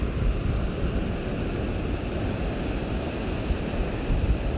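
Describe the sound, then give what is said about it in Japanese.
A steady, heavy wash of rough ocean surf breaking on the shore roars without pause, dense low rumble mixed with wind buffeting the microphone. No voices, just continuous rough sea noise. “はいちょっとね 今回来た時はこん今回はねちょっとね荒々しい感じの海でした”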